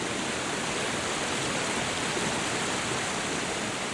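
Water flows continuously from the village fountain Fuente de Abajo, a dense, even splashing hiss with no voices, like water spilling from a spout into a basin.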